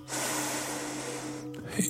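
A single deep, slow breath taken during meditation, a steady airy rush lasting about a second and a half before cutting off, with a faint low hum beneath it.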